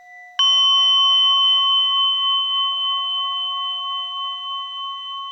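A single strike on a small, higher-pitched orin bowl bell, producing a bright, clear metallic ring that sustains evenly and fades only slightly over several seconds, heard alone with no talking.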